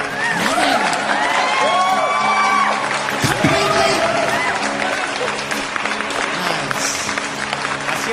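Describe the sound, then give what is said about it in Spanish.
An audience applauds steadily for about eight seconds, a dense wash of clapping with high whoops and shouted cheers rising and falling over it. The noise stays loud and even throughout. “Aplausos.”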